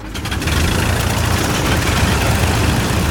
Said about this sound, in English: With everyone on board, the four mighty Pratt & Whitney engines fired into life.